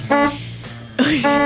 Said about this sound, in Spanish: es el claxon, es el claxon Sí, de auto, Maca Hansen. Claxon, claxon.